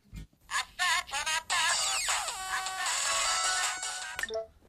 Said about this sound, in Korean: 그리고 바로 울리는 동우의 휴대폰